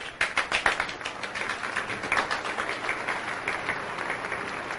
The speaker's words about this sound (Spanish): Allí hubo aplausos. ¿O no, militar? Sí, muchos aplausos.